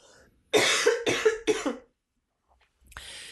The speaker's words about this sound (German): Ich muss erstmal husten.